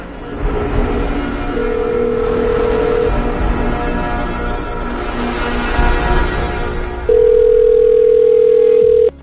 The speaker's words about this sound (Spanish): Hijo de puta me está llamando por teléfono.